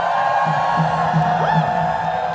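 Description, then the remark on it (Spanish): A crowd of people shouting and cheering together in praise to God, a loud, continuous wash of voices with a few rising whoops cutting through. “Give God a shout of praise a right Dios now. un grito de alabanza.”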